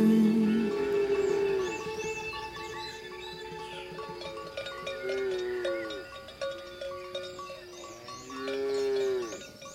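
A cow moos repeatedly, three long, drawn-out lowing calls rising and falling in pitch, loud, with faint bell-like tones in the background.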